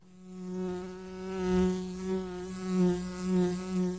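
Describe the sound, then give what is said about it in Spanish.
A bee buzzes in a steady droning hum that swells and fades in gentle waves for about four seconds, with no other sounds around it, in an advertisement for a honey-flavoured beer. “Este es el zumbido de la abeja de Andes Origen Miel.”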